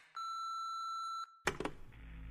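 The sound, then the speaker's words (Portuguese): A voicemail beep: one steady, high-pitched electronic tone lasting about a second, then a burst of rough, clattering noise and a low hum. “Você tem uma nova mensagem.”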